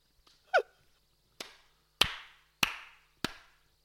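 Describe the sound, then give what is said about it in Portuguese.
A few slow, deliberate hand claps ring out one at a time at a steady pace, crisp, after a short squeaky chirp at the start. “Palmas, palmas para este Rodrigo.”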